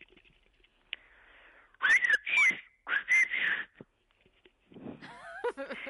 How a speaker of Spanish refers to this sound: Ya me va a matar, porque si ya le digo que si sabe silbar y me despide silbando, pues ya me mata, ¿verdad? Eh, ¿Qué le digo? Buenos días. Lo que usted quiera, despida el programa, despida el de la noche al día y dele los buenos días a Canarias.